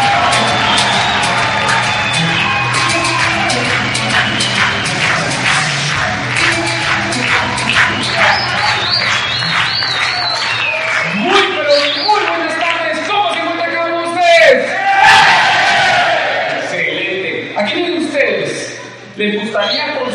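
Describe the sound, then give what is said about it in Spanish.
A crowd breaks into loud, sustained applause and cheering to welcome the winner of a company leader award, dense clapping with scattered whoops and shouts rising over it for about twenty seconds before tapering slightly. “Así que quiero que recibamos con fuertísimas palmas a nuestro premio líder de la compañía”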